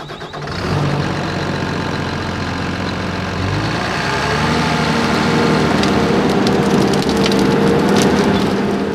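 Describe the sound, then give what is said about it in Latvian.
A heavy forestry machine engine runs steadily and loud as the machine slowly moves toward a tree, puts its sawing head to the trunk and cuts in with rotating teeth, its pitch rising, with cracking and splintering wood sounds breaking through toward the end. “Kamēr vadītājs sēž pie pults, es ārpusē vēroju, kā agregāts lēni virzās iepratim kokam, Tā ir efektīva mašīna.”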